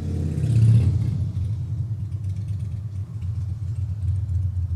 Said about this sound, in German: Ein dickes Motorrad. Ah, abgewürgt.